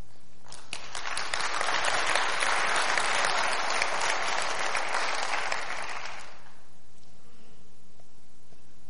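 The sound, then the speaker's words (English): A church audience claps steadily in a dense, crackling burst of applause that holds strong for about six seconds, then fades away into quiet. No one speaks. “I'm trying to think if there's anything else I, I can say to get another applause out of you.”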